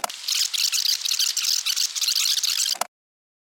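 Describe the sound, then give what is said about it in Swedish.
A chair creaks and squeaks as someone settles properly into it, one continuous, fairly loud grinding creak lasting nearly three seconds before stopping abruptly. No one speaks. “nu satte jag mig ordentligt i stolen.”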